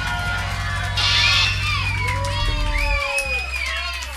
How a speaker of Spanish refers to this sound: Un aplauso para él.